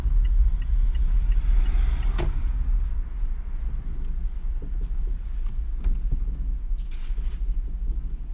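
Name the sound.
car engine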